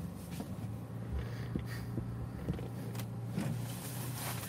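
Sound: car being driven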